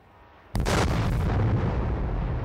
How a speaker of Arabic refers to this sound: المفاجأة أن الطائرة الموكلة بالمهمة انفجرت فوق سطح البحر